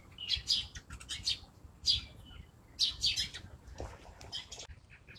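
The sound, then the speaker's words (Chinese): A flock of sparrows at the Summer Palace (Yiheyuan), where they nest on the pavilions, chirps busily, with many high, overlapping tweets arriving in irregular bursts over a low background rumble. No one speaks. “麻雀，一群一群的麻雀。”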